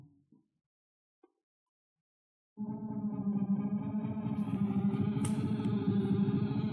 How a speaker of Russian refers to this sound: И вот представьте, под вот эти барабаны... Это именно те барабаны.